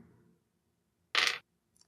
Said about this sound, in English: I'm making a lot of fours and sixes with these dice.